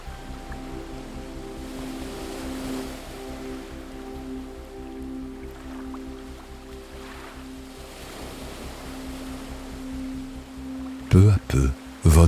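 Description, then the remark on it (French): A steady, soft wash of ocean waves on a deserted, sunlit beach in warm weather with a light breeze, with low humming tones held beneath it and a few abrupt loud bursts right at the end. “Vous êtes sur une plage paradisiaque, déserte et baignée de soleil.”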